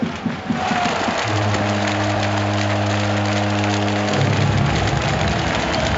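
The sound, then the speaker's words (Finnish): A packed ice hockey arena, Hakametsä, roars during the Tappara–IFK game with a dense, steady crowd din throughout, while a sustained droning horn-like tone rises through the noise for a few seconds midway. “Nimittäin meteli on sellainen, ettei täällä kuule yhtään mitään.”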